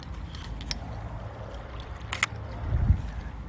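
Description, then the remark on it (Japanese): A few quick, crisp shutter clicks from a tripod-mounted DSLR photographing a lunar eclipse, one closely spaced pair among them, over a steady low rumble of outdoor background noise under a clear sky, with no one speaking. “今撮影した音聞こえたかなシャッターの音。”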